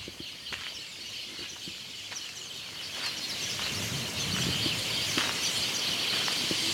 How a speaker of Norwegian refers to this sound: Hør på de fuglene der, da.